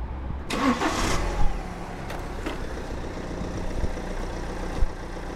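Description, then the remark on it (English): A BMW 3 Series car engine cranks and catches with a short burst of noise, then settles into a steady low idle rumble, with no voices. “now I um, drive a car. It's a 3 Series BMW, so it's not even close to what a bike can achieve, especially an automatic, but you know, it gets me from A to B.”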